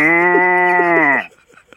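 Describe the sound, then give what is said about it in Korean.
A person imitates a cow with one long, loud, steady moo held for over a second, then it cuts off into near silence with a few faint clicks. “다음 소 울음소리요.”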